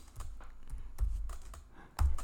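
Rapid keyboard typing, a run of irregular clicks and clacks with a few heavier key strikes standing out, played alone without any voices.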